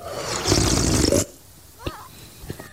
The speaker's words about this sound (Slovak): No, tak toto bolo jedno odporné srkanie polievky. Toto bolo, to, takéto zvuky. toto bolo to najhoršie, čo som za dnešné ráno počul.